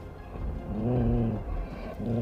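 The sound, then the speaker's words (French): A dog on a moor stops still and gives a low, throaty growl that rumbles for about a second, steady, over a dull background drone with no voices. “Elle s'immobilisa et grogna.”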